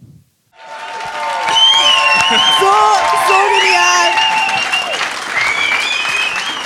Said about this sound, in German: Und wir haben heute eine wunderbare Crew an Musicians heute Morgen. Ihr gebt ihnen schon mal einen Applaus. Yes! die was Wunder, Wunderbares für uns vorbereitet haben.